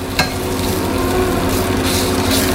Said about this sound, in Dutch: Is ook gewoon bakken zoals altijd? Ja, gewoon bakken zoals altijd. Geen kunst aan.